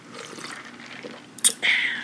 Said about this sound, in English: Hold on. You want to hear me sip it?